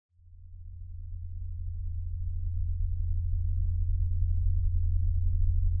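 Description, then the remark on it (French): A steady low-pitched drone hums continuously, like a diesel engine idling somewhere far off, swelling slightly at the start and then holding even and unbroken with no voices. “Vous entendez ce bourdonnement Comme un moteur diesel allumé au loin Peut-être que plusieurs d'entre vous vivent avec depuis des années.”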